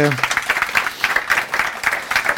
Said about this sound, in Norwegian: gi han en liten applaus, og så skal vi